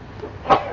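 A single short, sharp sneeze bursts out midway against a quiet background with no talking.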